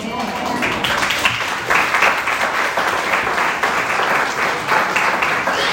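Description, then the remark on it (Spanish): An audience at a sermon breaks into steady applause, a dense wash of many hands clapping at an even loudness for several seconds, with a faint murmur of voices mixed underneath. “¿Alguien iba a aplaudir?”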